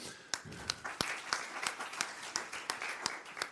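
An audience applauding, a steady wash of many hands with a few sharper claps popping out at an even, regular beat; moderately soft and continuous, with no talking.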